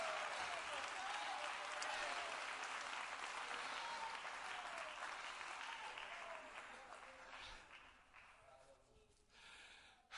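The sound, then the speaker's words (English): A large crowd claps their hands in praise to the Lord in a dense, sustained burst of applause that holds steady for several seconds before gradually thinning out and fading near the end. “Come on, clap your hands to the Lord and give him praise right now.”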